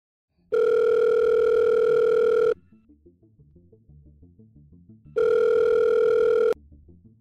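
Telephone ringback tone as a phone call is placed: two loud, steady electronic buzzing bursts about two seconds apart, separated by a quieter stretch of faint line noise, with no one speaking.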